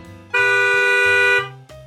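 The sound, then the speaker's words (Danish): A loud, sustained car horn blares for about a second from the car behind an old car waiting at a car wash, a steady harmonic honk cutting sharply over a low idling engine rumble that continues before and after. “og det er bilen bag ved ham, som dytter af ham.”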